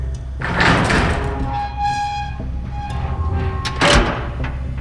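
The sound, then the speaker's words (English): A large, heavy metal door with a rusted handle at the end of a hallway is pulled open with a long, grinding creak that rises into a squealing whine, framed by deep scraping thuds at the start and end, loud. “A large metal door, not unlike the one at the top of the stairs, sat at the other end of the hall, a rusted handle at its side.”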